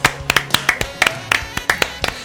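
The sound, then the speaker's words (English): Two people clapping, their sharp, bright hand claps overlapping in an uneven rhythm, about a dozen in quick succession over a couple of seconds, fairly loud against a faint background. “Thank you for the both of you applauding.”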